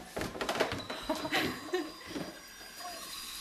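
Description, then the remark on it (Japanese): Wooden stairs creak and groan under slow footsteps, a few drawn-out squeaks and knocks spaced irregularly, fairly quiet with a faint hiss behind them. “おギシギの階段のほんまにギシギシ音がもう”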